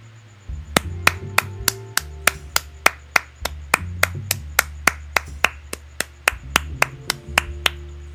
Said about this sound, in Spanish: Así que eh, en general, eh, como es bastante ambiguo y todavía hay cosas que podrían llegar a suceder, le voy a dar a esta predicción en general unos sencillos aplausos.